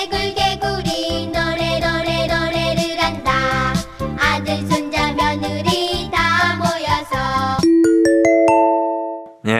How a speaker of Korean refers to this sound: 동요 개구리 중에 한 소절. 정답 1번 노래를 한다.